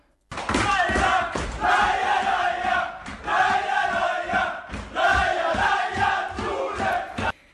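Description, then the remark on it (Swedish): A large crowd in Umeå cheers and roars loudly, rising in three sustained bursts of voices with brief dips between them, then cuts off abruptly at the end. “Umeå jublade.”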